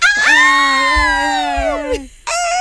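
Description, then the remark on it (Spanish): Girls scream excitedly in a loud, sustained, high-pitched shriek lasting about two seconds, followed by a short fresh burst of screaming, like an enthusiastic crowd reacting as a guest is welcomed on the show Así está el mundo. “Thank you, thank you so much for todas las chicas gritan.”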